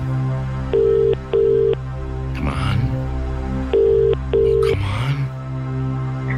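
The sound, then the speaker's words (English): A telephone ringback tone sounds in two bursts of paired rings, ring-ring, pause, ring-ring, steady and fairly loud, as a radio show calls a listener's number, with a person briefly speaking in the gap between them. “That's your phone.”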